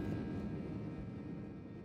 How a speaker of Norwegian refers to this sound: Lyden fra flyet har vi ikke, så det du hører er fra innsiden av en annen 737-800 under en lignende avgang.